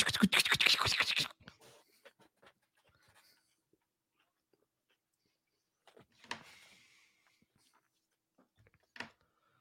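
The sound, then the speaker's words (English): Footsteps as a sound effect: a quick cluster of scratchy, crunching steps up front, then quiet with faint ticks, followed by a couple of isolated shuffling steps later on. No one speaks. “Listen, listen to those inserted footsteps.”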